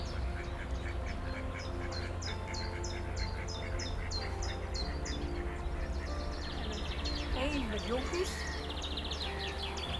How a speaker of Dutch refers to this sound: maar nou kijk, daar heeft je moeder eend met uh, jonkies. We horen alleen de ouder een helaas. De kleintjes toen nog niet zoveel.